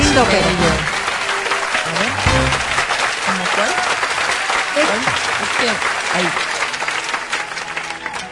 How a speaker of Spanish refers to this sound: Tienen que dejar de aplaudir más rápido para que suene la canción.